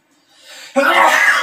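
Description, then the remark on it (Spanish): A single loud sneeze: a short rising intake of breath, then a sudden explosive burst of breathy noise that trails off over about half a second. “Salud. Perdón.”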